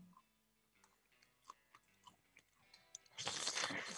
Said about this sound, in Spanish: Además, te hago también el rechine de la, mm, de la cuchara con los dientes, ¿eh? No, es el peor, ese es el peor. ¿Se escucha? Sí.